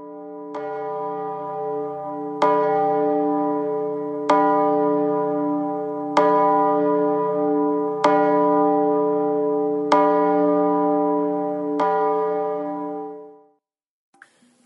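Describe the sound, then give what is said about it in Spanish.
A large bell, which visitors ring while making a wish, rings out seven times at a slow, even pace, each loud strike blending into a long, humming resonance before the next. No voices, and the tolling stops abruptly near the end. “si se toca la campana y se pide un deseo, este se cumplirá.”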